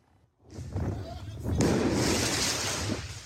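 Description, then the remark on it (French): Firework mortar shots fired at firefighters during an intervention in the 20th arrondissement of Paris on the night of 14 July go off in two loud, sharp bursts, each trailing into harsh crackling noise, with indistinct voices and commotion underneath. “Des actes de vandalisme, mais aussi de violence, comme ici dans le 20e arrondissement, où des pompiers en pleine intervention sont visés par des tirs de mortier.”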